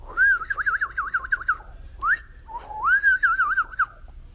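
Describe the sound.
A clear warbling whistle imitating birdsong: two fluttering, trilling phrases separated by a quick rising chirp, with no talking.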